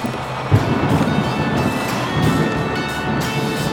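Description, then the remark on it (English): A thunderstorm rumbles steadily, with a dense wash of rain and wind noise and deep low thunder rolling throughout, one slightly sharper swell early on. No voices. “The music is turned up in an effort to drown out the storm.”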